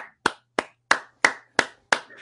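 Applause welcoming a guest on a show, made of about six sharp, crisp hand claps in a steady, fairly quick rhythm, each one snapping out clearly against near silence, with no voices.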